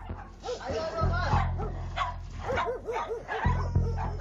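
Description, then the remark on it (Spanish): Several dogs bark and yip excitedly in quick bursts, with whining mixed in and a low rumbling hum underneath throughout; a scene from John Carpenter's film The Thing, as men rescue the dog in the snow. “Los hombres rescatan al perro.”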